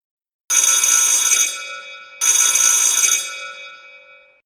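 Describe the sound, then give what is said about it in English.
A loud safety alarm bell rings in two long, harsh bursts, back to back, each clattering steadily before fading out, with no voices. “An insanely loud bell went off.”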